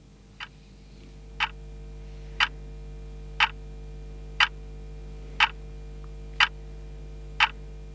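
A clock ticks steadily toward midnight, eight crisp, evenly spaced clicks about one per second, over a low constant hum with no voices.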